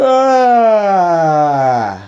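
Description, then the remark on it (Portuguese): A voice imitates a loud yawn: one long, drawn-out, strong vowel, sliding steadily downward in pitch for about two seconds before trailing off. “Eu adoro quando pessoas fazem isso, quando elas bocejam, elas fazem o som.”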